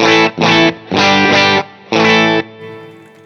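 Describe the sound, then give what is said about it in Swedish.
Electric guitar played straight through an amplifier, a series of loud, slightly gritty strummed chord stabs in an uneven rhythm, the last one ringing out and fading. No voices. “Så här låter stärken. Eller utan någon pedal.”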